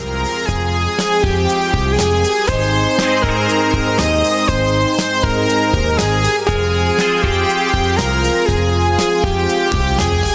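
A loud, full Italian pop instrumental intro with a steady drum beat, deep bass and sustained melodic keyboard or string lines, playing continuously with no singing or talking.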